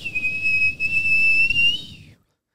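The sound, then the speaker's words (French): A voice imitates a high, steady whistle of cold wind through a patio door that had blown open, held for about two seconds with a slight wavering pitch over a low rumbling breath, then cutting off. “Là, je me lève, mon gars, il faisait fret, ça sifflait même.”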